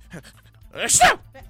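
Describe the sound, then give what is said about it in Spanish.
A single sharp sneeze bursts out, a breathy hiss with a quick voiced catch, preceded by a faint soft inhale and followed by quiet. “¡Salud!”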